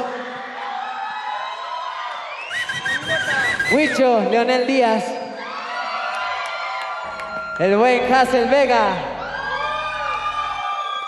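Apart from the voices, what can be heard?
audience applauding and cheering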